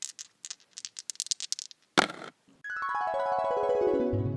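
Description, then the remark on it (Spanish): Dice rattle and clatter in a quick, irregular burst of a dozen sharp clicks, followed by a short noisy hit and then a long, steady tone that sweeps downward. No one speaks. “Vamos a lanzar los dados y cayeron en...”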